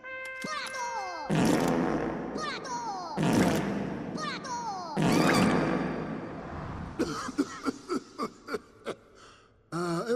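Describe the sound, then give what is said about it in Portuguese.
A series of loud, comic fart noises forming a 21-fart salute honoring Dr. Nefario for his years of service, in a Minions scene: a few long, blustery blasts spaced a couple of seconds apart, then a quick run of short pops, with voices and chatter mixed in. “Nefário pelos seus anos de serviço, a saudação de 21 puns.”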